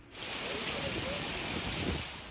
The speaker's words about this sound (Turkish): Yani Manisa'nın da Turgutlu ilçesinde sağanak yağış hayatı olumsuz etkiledi. Evleri, iş yerlerini su bastı. Araçlar su dolu yollarda güçlükle ilerledi.